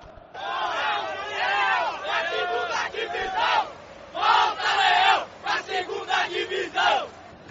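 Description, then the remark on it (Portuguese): A stadium crowd of over 60,000 Fortaleza fans dressed in red, blue and white cheers wildly as Fortaleza takes the field against Brasil de Pelotas, a loud sustained roar of many voices that swells into chant-like bursts, ending in a series of short rhythmic surges. “E quando o Fortaleza entrou em campo, a torcida foi ao delírio.”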